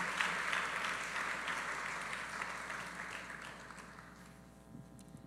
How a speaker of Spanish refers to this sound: Vamos a fuerte aplauso al Señor.